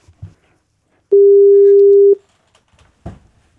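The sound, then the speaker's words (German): A single steady, loud ringback tone sounds for about a second, the ringing heard on an outgoing phone call placed to a phone-a-friend lifeline, with faint handling noises and a brief rustle before and after. “Zeit für Telefonjoker, so, oder? Machen wir es mal.”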